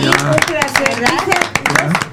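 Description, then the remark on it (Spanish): Scattered hand clapping, sharp irregular claps from a few people, mixed in with voices talking and laughing over them the whole time. “Pues, un pues aplauso.”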